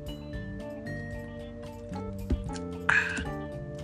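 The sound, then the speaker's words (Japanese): Someone takes a drink of water: soft swallowing and gulping noises, then a brief, sharper slurp near the end, over a faint steady background hum with no talking. “あの1日2リットル以上はぱ飲んじゃう口が暇だったら飲んじゃうみたいなとこあるんでって言いながら今からお水飲むんですけど”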